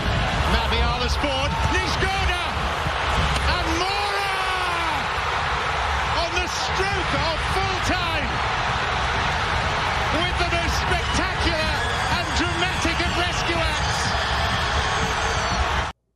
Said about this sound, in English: I, th- I, I think that was just the, some of the fans screaming.